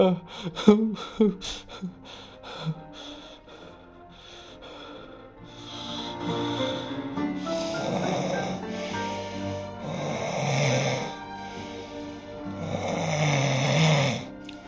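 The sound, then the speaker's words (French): A man snores heavily in slow, rhythmic breaths, each rasping snore swelling every few seconds, fairly loud, after a few brief rustling clicks at the start. “Il sanglota tellement qu'il finit par s'endormir.”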